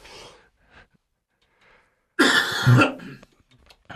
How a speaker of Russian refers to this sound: Извините, я откашлялся.